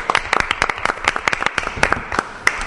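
An audience applauds a returning guest: a dense, steady patter of many overlapping hand claps, fairly loud, with sharp individual claps standing out now and then, lasting about three seconds.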